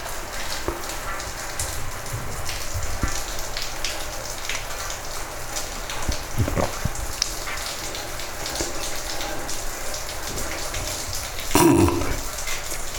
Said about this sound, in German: So wie das Wasser da runterläuft, klingt es, als wenn draußen einer duschen würde. Hört ihr das?